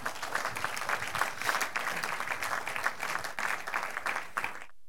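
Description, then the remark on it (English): A church audience claps their hands in praise of God, a dense, steady burst of applause that holds at an even level for about five seconds before stopping abruptly. “Oh, clap your hands and give God the praise.”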